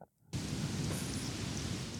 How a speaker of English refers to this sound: I got heavy rain.